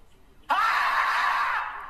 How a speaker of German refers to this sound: Heute machen wir eine Reaction auf ein Murmeltier. Ich werde es in die Beschreibung machen. Ein Murmeltier, das schreit.